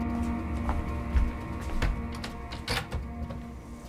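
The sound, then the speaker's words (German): A window being opened: a series of mechanical clicks and rattles from the handle and frame, with a low hum underneath and no talking. “Ja, öffnen Sie das Fenster.”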